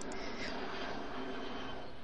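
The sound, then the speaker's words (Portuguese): A steady, broad roar of an airplane passing overhead in the sky over Porto Alegre, holding an even loudness through the short stretch, with no voices over it. “Ela passar um avião.”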